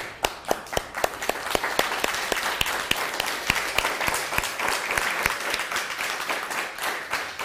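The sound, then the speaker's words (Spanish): A crowd applauds steadily for several seconds, a dense, even wash of many hands clapping, with a few sharper individual claps standing out at the start. No one speaks over it. “Bienvenidos todos, un fuerte aplauso.”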